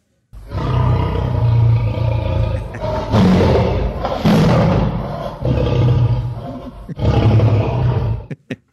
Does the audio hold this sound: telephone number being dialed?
no